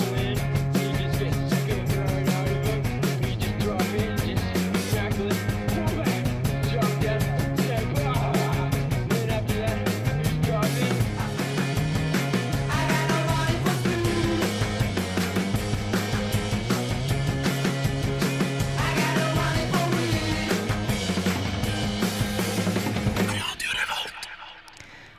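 An upbeat intro song with a steady driving beat and bright layered instrumentation plays loudly for about twenty-three seconds, then abruptly cuts off into near silence.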